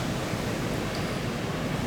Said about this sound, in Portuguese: Mas para saber que elas chegaram no lugar certo, elas precisam reconhecer a paisagem sonora da costa.